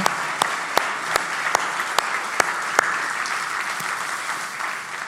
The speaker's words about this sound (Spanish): quiero que te brindes un aplauso a ti misma, a ti mismo por haber venido hoy aquí.